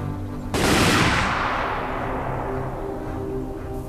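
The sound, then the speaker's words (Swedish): A loud volley of rifle shots, fired by the Reds at a group of prisoners, erupts abruptly after a brief quiet, merging into one sharp blast that rolls away in a long, fading echo. No voices are heard. “I detsamma sköt de röda en skottsalva.”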